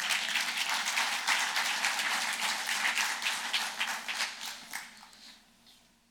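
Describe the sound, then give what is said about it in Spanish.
An audience breaks into applause, a dense wash of many hands clapping that holds steady, then thins into scattered claps and fades out over the last second or two. “Pueden aplaudir.”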